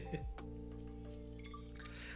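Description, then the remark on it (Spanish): Water pours steadily into a glass as a person serves themselves water to drink, a continuous gurgling fill with a ringing, tonal quality that lasts about two seconds. “voy a echarme agua mientras... Echarme agua mientras tanto.”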